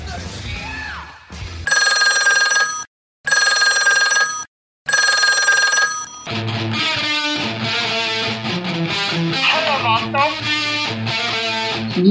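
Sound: telephone ringing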